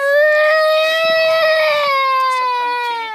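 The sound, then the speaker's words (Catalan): A young girl wails in one long, loud, high-pitched cry at a farewell with her parents before they climbed to the summit of Kilimanjaro; the cry holds steady for several seconds and sags slightly in pitch near the end, with faint background murmuring underneath. “L'expedida va ser dura, la veritat que va plorar molt, molt rato.”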